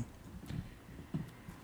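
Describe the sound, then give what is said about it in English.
A dog chewing on a wooden chair, heard as two soft, dull knocking crunches about half a second apart, fairly faint and with no voices. “That's my dog chewing on the chair.”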